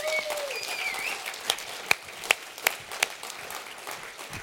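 An audience applauds as people are asked onto a stage, a steady wash of clapping, a few sharper individual claps standing out, and a brief whistle-like tone at the start. No one speaks.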